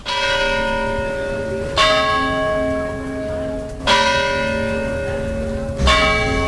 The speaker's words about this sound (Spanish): Un emotivo funeral que tenía lugar en esa parroquia que tú apuntabas de San Nicolás, a pocos metros de su domicilio, donde sonaba así las campanas a poco antes del mediodía.